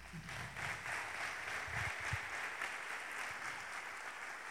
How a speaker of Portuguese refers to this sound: Glória a Deus, aplaude o Senhor por isso.